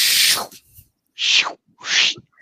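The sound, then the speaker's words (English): A voice mimics an eyeball or telescoping door opening, like one at a McDonald's kiddie play center, with three breathy, hissing bursts: a long first one, then two shorter ones with a slight downward slide. Fairly loud, with no talking. “What what sound does a door make? That's this shape when it opens.”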